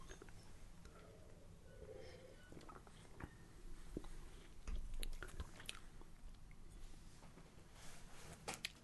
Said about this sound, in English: Well, let's let's try sipping. I mean, we we mix, but who knows?